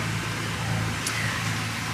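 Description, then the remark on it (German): A motorboat engine drones steadily as the boat passes by, a low, rumbling hum that holds at a fairly even loudness throughout, with no voices over it. “ich bin kein Fan von Motorbooten. Oh, der stinkt.”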